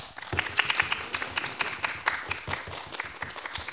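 An audience applauds with dense, crackling claps that start abruptly and keep a steady, lively patter for several seconds, fairly loud with no talking over it.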